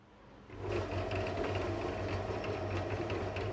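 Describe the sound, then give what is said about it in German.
A concrete mixer truck's drum starts up and settles into a steady, rhythmic churning, stirring the finished concrete mix so it does not set early, with a heavy mechanical drone, a pulsing low hum and faint clanking throughout. No one speaks. “Dieses Geräusch lässt manches Kinderherz höher schlagen. Ein Betonmischer wobei der Name eigentlich falsch ist, denn gemischt wird nur im Werk.”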